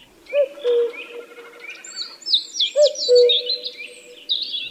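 common cuckoo calling

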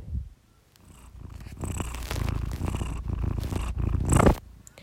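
cat purring

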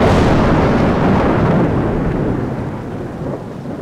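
heavy rain

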